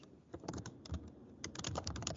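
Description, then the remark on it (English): Rapid clicking of keys on a computer keyboard as someone types to search for things, a steady stream of quick taps with no talking, some bursts slightly louder than others; the keys are louder than on the typist's old keyboard. “I was typing stuff in to look for stuff. I forget that you guys the keys on this computer are a little louder than my old one, so I”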